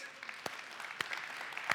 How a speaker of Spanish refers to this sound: Un aplauso a todos.